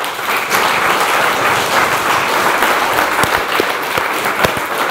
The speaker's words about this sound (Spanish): Denle un aplauso a Dios, por favor.